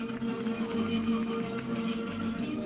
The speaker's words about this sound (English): That's the sound of Kamala Harris arriving. Kamala Harris just came out to huge round of applause and cheers.